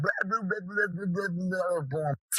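A dog barks and yaps frantically in a loud, almost unbroken stream of rapid, pitch-wobbling calls for about two seconds, then stops abruptly.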